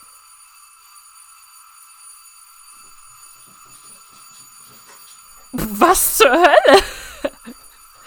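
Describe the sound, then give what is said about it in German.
A doorbell rings continuously as a steady, sustained electric tone for several seconds, and near the end a voice cuts in with a sudden loud exclamation over the ringing. “und für die, die sich gefragt haben, warum die Klingel so krass abgegangen ist, ich weiß gar nicht, ob man sie auf der”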